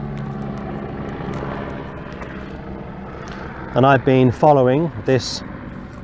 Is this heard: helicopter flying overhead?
yes